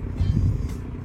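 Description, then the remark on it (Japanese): A boat engine rumbling steadily at sea while fishing, with no one else around, a deep, continuous low drone with a throbbing texture that holds fairly even in loudness for about a second. No voices are present. “周りに誰もいなくて波の音と船の音そして私の朗読が響く”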